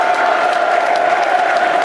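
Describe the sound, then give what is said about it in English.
A large stadium crowd at the Den applauds steadily as Jed Wallace comes on as a substitute, a dense, continuous wash of clapping that holds at an even, fairly loud level throughout without any clear voices standing out. “Good applause.”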